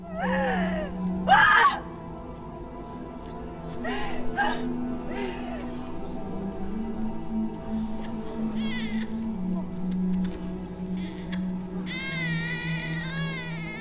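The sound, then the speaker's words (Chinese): A baby wails loudly in repeated high, strained bursts, the cries rising and breaking over a steady low droning hum that continues underneath throughout. “荧光男当然也听到了响亮的哭声。”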